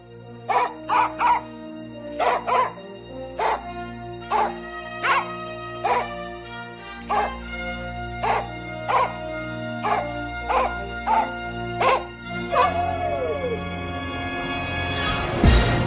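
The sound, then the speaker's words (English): A dog, a Soviet space dog blasted into space in 1961, barks over and over in a steady, fairly quick rhythm, sharp, before a rising whooshing roar swells and takes over at the end. “Forty years ago, one brave pooch went where no human had gone before.”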